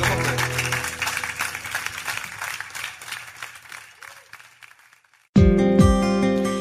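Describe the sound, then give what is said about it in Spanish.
A church audience breaks into loud, dense applause for God with sustained low instrumental tones underneath; the clapping gradually thins and fades, then music abruptly starts at the end. “porque no le damos un fuerte aplauso a nuestro Dios?”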